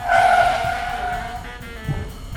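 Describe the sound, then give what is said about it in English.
A car skids through a handbrake slide turn in a loud, sustained tire squeal that starts sharply and slowly fades as it slides through the turn, with engine rumble beneath and no voices. “If we try the handbrake slide again.”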